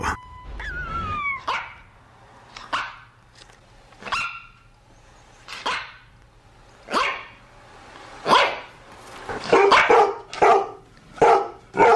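A dog barks repeatedly, starting with spaced single barks and building to a quicker burst of several barks near the end, loud with a faint steady hum underneath.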